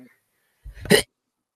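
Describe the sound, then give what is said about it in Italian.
A single short sneeze, fairly loud, with a quick breathy intake leading into a sharp burst that cuts off fast, followed by silence. “Salute.”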